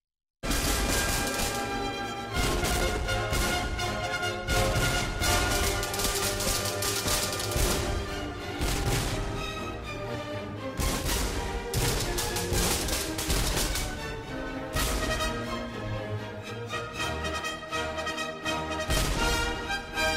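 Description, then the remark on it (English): An orchestral piece scored for cannons and fireworks plays loudly while booming cannon shots burst through again and again, heavy blasts punctuating the music in an irregular volley throughout. “Wellington's victory is a bit unique because it's the only piece of his that uses cannons and fireworks”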